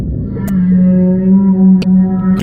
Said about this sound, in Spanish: Bueno, pues creen que es el primer intercambio comunicativo entre humanos y ballenas jorobadas en lenguaje balleno.